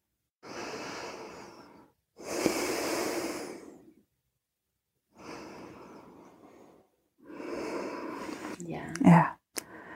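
Slow, deep breaths drawn in and let out during a relaxation exercise with eyes closed, four long airy rushes with brief pauses between them, steady, ending with a sharper nasal exhale.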